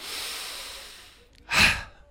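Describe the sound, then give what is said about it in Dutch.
A long, slow breathy exhalation, part of a breathing exercise done while walking, gradually fades out, followed by a short, louder breath drawn in, with no talking. “En dan doe ik tien keer de nirvana-ademhaling. Dat is een langzame uitademing.”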